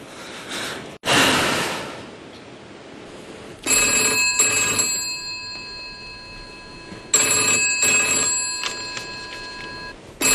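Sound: telephone ringing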